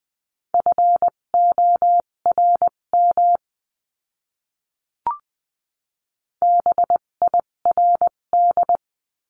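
Morse code practice tones sending words at 14-20 words per minute: a single steady mid-pitched beep keyed into quick dots and dashes, sounding two bursts of characters separated by a silent pause with a brief click.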